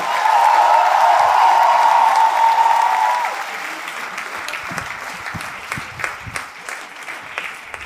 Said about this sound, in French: Un tonnerre d'applaudissements pour les trois fromages, s'il vous plaît.